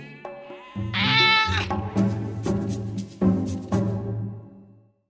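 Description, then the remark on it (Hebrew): A cat meows loudly in a long, wavering, drawn-out cry that rises sharply early on and then trails through several more pulses before fading out, with no talking. “קישטה חתול, קישטה.”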